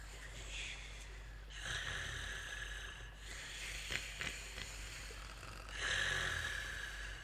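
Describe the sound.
Heavy, rasping snoring of a sleeping three-headed dragon fills the space in long, rumbling breaths, about four of them in a row, loud with a noisy, growly texture and no voices.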